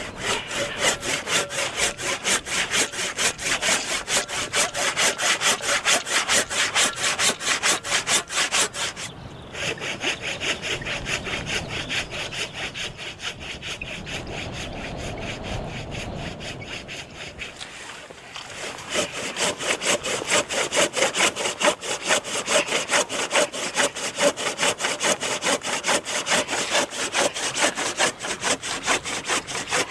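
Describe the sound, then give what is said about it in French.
A hand saw rasps steadily through wood in quick back-and-forth strokes, loud, slowing into a softer grinding stretch midway before the brisk rhythmic sawing resumes. “Oh, tu sais quoi Si je scie ici...”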